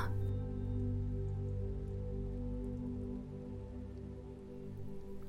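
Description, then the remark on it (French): A steady, continuous rush of falling water from a waterfall in a forest, with a low humming drone underneath and no voices. “En vous approchant de la cascade, vous commencez à entendre son chant de plus en plus clairement.”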